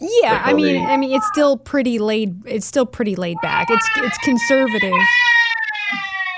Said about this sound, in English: I'm sorry if you can hear my son in the background.